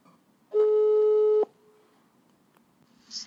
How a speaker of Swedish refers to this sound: Nu ringer jag en väldigt speciell gäst.